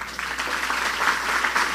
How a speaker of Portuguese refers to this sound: Só o resumo já vale a pena a gente glorificar. Aplaude Jesus, gente.